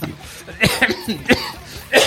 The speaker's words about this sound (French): Déjà, on va tousser.